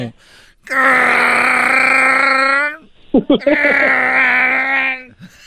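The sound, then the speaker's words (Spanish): A person imitates a guttural, growling creature roar in two long, loud bursts, the first lasting about two seconds, followed by a brief sputter and a second drawn-out growl. “Oye, …, parece que cuando hablas parece que va a arrancar un carro”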